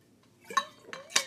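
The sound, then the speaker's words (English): Three light clinks of glass a fraction of a second apart, fairly quiet, with a soft pouring or rising liquid tone running between them as someone gets some water; no voices. “Sorry, y'all had to give me some water.”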